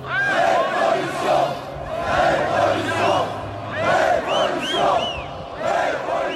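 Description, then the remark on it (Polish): A large French Revolution crowd shouts and roars together, many raised voices overlapping in loud, surging waves that swell and ease throughout, unbroken from start to finish. “Rewolucja francuska kojarzy nam się głównie z krzyczącym tłumem i tym jakże niemiłym dla ucha dźwiękiem, wydawanym przez urządzenie wymyślone przez chirurga Josefa Ignasa Gilotena.”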